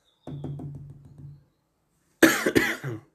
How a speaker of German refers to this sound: Da wieder der Husten.